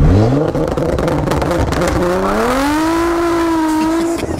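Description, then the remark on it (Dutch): A car engine revs hard and loud, its pitch climbing in a sweeping rise, then holding a high steady roar before dropping off near the end. “Als jouw auto te luid is.”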